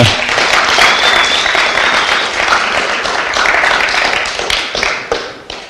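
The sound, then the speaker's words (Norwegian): An audience applauds an acting performance with dense, steady clapping that stays loud for several seconds, then thins into scattered claps and fades at the end. “fortjener en applaus for eh, denne”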